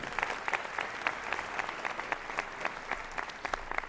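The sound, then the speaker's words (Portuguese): Steady audience applause for Dudu Camargo as he is called to the podium, a dense patter of many hands clapping at once with sharper individual claps standing out, sustained at moderate loudness throughout with no talking. “Tá Uma salva de palmas para Dudu Camargo.”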